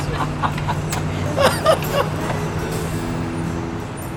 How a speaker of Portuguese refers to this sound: O barulho tomava conta do pátio do posto de gasolina na maior parte do tempo com trânsito intenso de veículos, motoristas falando alto e música, principalmente sertaneja, que saía dos carros e caminhões estacionados.